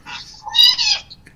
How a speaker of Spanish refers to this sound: Perdón por mi gato, lo siento.